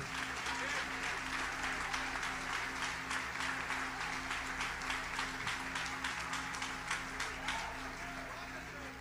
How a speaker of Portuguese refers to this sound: Diga amém uma salva de palmas para o Senhor.